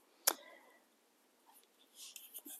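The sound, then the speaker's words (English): Quiet paper handling as the pages of a Bible are turned to Luke 19: one crisp flick near the start, then a pause and a few soft rustling swishes toward the end, with no talking. “You may hear me turning pages.”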